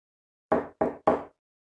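Three firm knocks on a door in quick, even succession, fairly loud, each with a sharp start and a short hollow decay, followed by silence.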